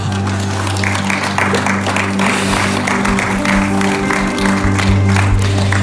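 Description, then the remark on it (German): An audience claps in a dense, steady wash of applause lasting several seconds, with scattered cheers and voices mixed in over sustained low instrumental tones. “Jesus, ich merke, wenn man hier klatscht, dann hat man verstanden, welches Privileg das ist dass wir eine Gemeinde haben dürfen”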